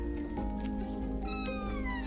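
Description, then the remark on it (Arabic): A male cat meows in a drawn-out, wavering call with a rising then falling pitch, fairly loud against a low background hum, with no talking. “حاولت جاهدا إقناع الهر بأن يمرر لي البرسيم ولكن عبثا فقد أدار بحره لي وغادر آخ آخ من القطط وغرورها”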